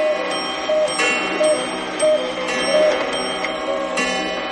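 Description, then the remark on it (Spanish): A crowded chorus of the speaker's clocks rings out together striking eight o'clock, overlapping chimes and bells sustaining over a steady layer of ticking, loud, with no one speaking. “¿Son mis relojes lo que oigo?”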